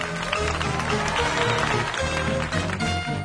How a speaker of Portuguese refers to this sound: A cortina se fechou atrás dele e o público aplaudiu.